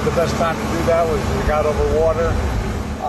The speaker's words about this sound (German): Während im Hintergrund die Turbinen der Air Force One ein bisschen laut sind